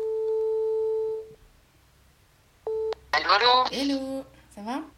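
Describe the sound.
A telephone line gives a steady, level ringing tone for about a second, then a brief second tone burst. A voice then answers and starts talking on a call to two people staying in South Africa.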